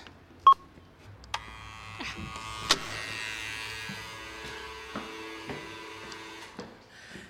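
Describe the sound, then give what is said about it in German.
A doorbell rings with a sharp electronic beep, then clicks and a long, buzzy, tonal drone that holds for several seconds before fading. Nobody speaks. “Let me check, wo ich klingel.”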